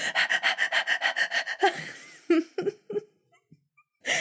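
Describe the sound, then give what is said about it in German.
A person imitates a dog panting with about ten rapid, rhythmic breathy huffs, loud, then trails off into a few scattered breaths and light laughter. “Vielleicht könnten wir einfach um auf Hecheln umstellen oder so. so wie Hunde und Vögel, die hecheln auch.”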